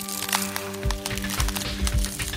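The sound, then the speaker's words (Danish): Dragon eggs cracking open: a series of sharp, crackling snaps, three punctuated by heavy low thuds, spaced roughly half a second apart over a steady humming drone. “Line Lotte kiggede hen mod dragen og æggene, der i samme øjeblik begyndte at slå ravner.”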